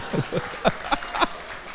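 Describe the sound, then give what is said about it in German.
Five slow, evenly spaced hand claps from a live audience, each a sharp slap with a short tail, at a moderate level and with no talking over them. “Nein, hört auf zu klatschen.”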